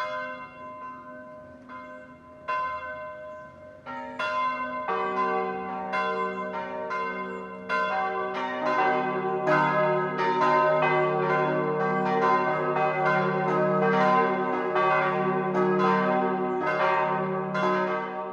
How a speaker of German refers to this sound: Es ist 12 Uhr. Das Mittagsläuten kommt heute aus Pfaffing in Oberbayern.